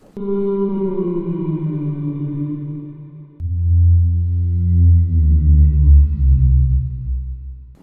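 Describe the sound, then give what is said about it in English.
Two long, deep whale moans, one after the other, each a sustained, gently sliding tone with rich overtones. The sound is loud, with no talking. “Um, no, that's the sound of a whale.”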